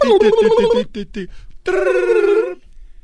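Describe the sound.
A voice imitates a telephone ringing: a fast warbling trill, a few short bursts, then one long, steady, buzzy ring tone held for about a second before it stops.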